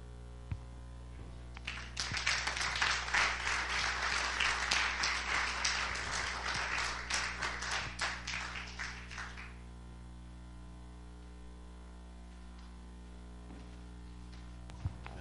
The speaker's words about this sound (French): Premièrement, c'est pas Dominique qu'on applaudit. C'est Jésus qui a fait le travail dans Dominique, qui peut faire la même chose dans votre vie et même plus.